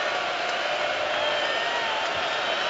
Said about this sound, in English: hearing it from the crowd again as he lines up for the free throw.